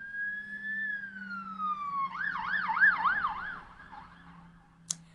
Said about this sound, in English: the street that I live on is directly um, going to the hospital. So every single time there's an ambulance that comes by, he always goes woo woo woo and puts his lights on.